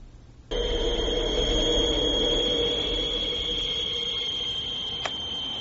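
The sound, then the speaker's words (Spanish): A harsh, sustained electronic screech and howl over a noisy telephone line, heard on answering the phone, kicking in abruptly and droning steadily with shrill high tones and a lower wail, with no one speaking. “Empezó ahora un par de meses cada vez que contesto al teléfono oigo eso. Al principio no, era como un pitido fuerte. Ahora son principalmente chirridos y aullidos.”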